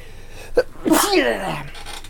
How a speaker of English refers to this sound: I got a sneeze coming.